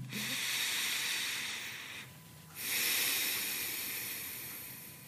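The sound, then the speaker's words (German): A long, deep inhalation during a breathing exercise, taken while feeling the pulse: a loud airy hiss of breath drawn in, briefly pausing midway before continuing and slowly tapering off. No one speaks. “Und wir können jetzt mal einatmen.”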